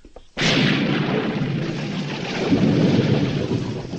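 thunderstorm with heavy rain

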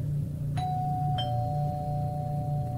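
doorbell ding-dong ringing

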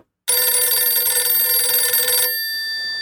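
telephone ringing

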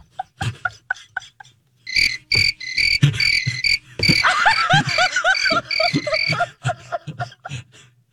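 crickets chirping

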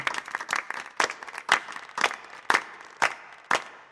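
audience clapping

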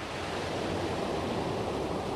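ocean waves breaking

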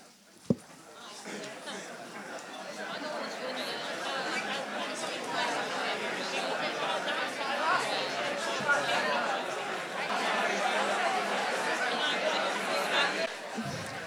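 audience chatter

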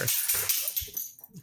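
dog whimpering

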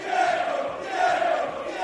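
football fans chanting

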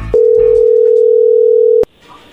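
telephone dial tone

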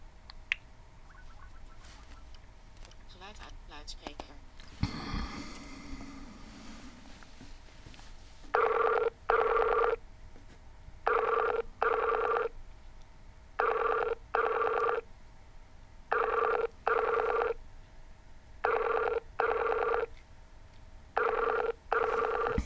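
outgoing phone call ringing

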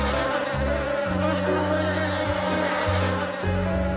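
bees buzzing

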